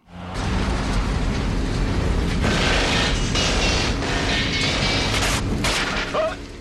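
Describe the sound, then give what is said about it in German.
Bullets strike a truck during a chase in the 1989 James Bond film Licence to Kill, right next to 007, amid a loud, constant rumble of engine and road noise, several sharp metallic impacts cracking out at irregular moments, with no voices. “Bei einer Verfolgungsjagd schlagen Kugeln in einen Laster ein, direkt neben 007.”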